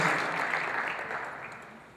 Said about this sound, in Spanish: Denle un aplauso fuerte al Señor y ocupe su lugar si está amado.